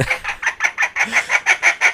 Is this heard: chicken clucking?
yes